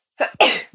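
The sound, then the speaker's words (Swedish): A single sharp sneeze: a short inhaled catch followed by an explosive, breathy burst that fades quickly, with no talking. “oh, prosit.”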